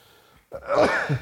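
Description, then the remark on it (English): A single loud sneeze bursts out after a brief quiet moment, with a sharp voiced burst that trails off into a breathy finish. “Bless you.”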